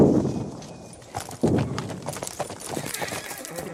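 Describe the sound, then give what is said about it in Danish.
Horse hooves clip-clop steadily on a hard surface as a woman turns her horse and rides back, with a quick series of sharp hoof strikes and a brief whinny amid the rhythmic steps. “Ja, men hun hører det også, og hun kommer ridende tilbage.”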